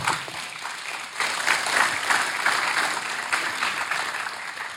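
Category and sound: crowd, audience applauding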